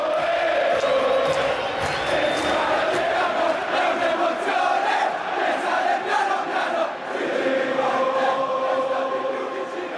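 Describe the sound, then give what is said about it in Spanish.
A huge crowd of football fans shouts and roars in a stadium during a pitch invasion, a loud, dense wall of voices that holds steady for the full ten seconds with swelling chant-like surges. “Esto es invasión de campo pasan y gritan.”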